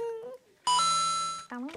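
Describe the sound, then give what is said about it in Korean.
A bright electronic ding chime rings out once as a coin is put into a coin machine to start the song accompaniment, holding steady for nearly a second, loud, with brief vocal sounds just before and after. “나 동전이 지금 띠링”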